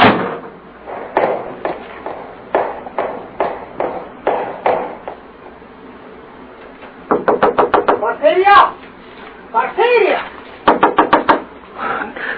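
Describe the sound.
Steady knocking on a door, about ten firm raps, then a pause before a faster, frantic burst of pounding with a woman's voice crying out for help between the volleys.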